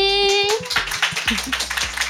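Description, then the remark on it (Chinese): A small crowd of nearly fifty audience members breaks into steady applause to welcome nine guests at a live recording. Many hands clap in a dense, crackling patter that stays fairly loud throughout, opening with a brief high-pitched voice or cheer. “我们先掌声欢迎这些来宾。”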